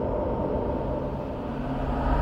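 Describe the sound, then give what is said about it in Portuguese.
Steady, low rumbling road noise from inside a car driving along the roads to the rural community of Redinha, now part of the Canoas wind farm, a continuous engine and tire drone at an even level throughout, with no voices. “Estamos passando de carro pelas estradas que nos levam até a comunidade rural de Redinha, que agora faz parte do Parque Eólico Canoas.”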